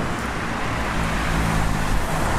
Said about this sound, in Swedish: Det ligger ett McDonalds och bilar åker förbi i hög fart på de nyvattnade gatorna.